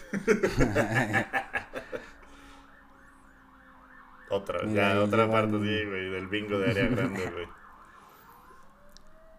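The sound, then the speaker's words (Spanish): An ambulance siren wails steadily in the background, rising and falling in quick cycles, while people talk and laugh loudly over it in the foreground. “Eh, y sonaba grave, o sea, como que hay ambulancias que son como más discretas, las de traslados programados del IMSS, pero sí es se oye como de infarto, ¿no?”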